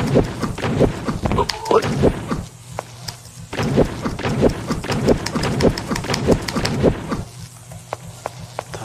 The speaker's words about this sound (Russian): То есть стрелками мы можем ходить, слышим шаги. Э, когда приближаемся к стене, э, звуки меняются шагов. Вы можете слышать.